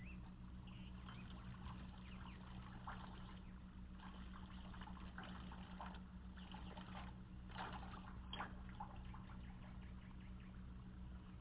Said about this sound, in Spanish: Eh, si después de tenerlo sumergido, lo sacamos con el cuello destapado, el agua sale por los agujeros inferiores como pequeña ducha.